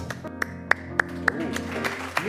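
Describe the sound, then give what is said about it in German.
Audience clapping at the live show Geschmackssache at the Ella und Louis, in a slow, even rhythm, roughly eight crisp claps about a third of a second apart, over a steady low tonal hum. “Applaus.”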